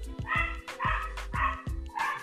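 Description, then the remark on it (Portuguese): The speaker's own female dog barks repeatedly in quick, yappy bursts, about four sharp barks, with a faint steady hum underneath and no talking. “Vou pagar a minha cachorra.”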